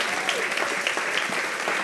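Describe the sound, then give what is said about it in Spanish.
A church audience claps steadily during a sermon for about two seconds, a dense wash of overlapping handclaps at a fairly even loudness, with some faint voices mixed in. “Si usted va a aplaudir aquí, aleluya.”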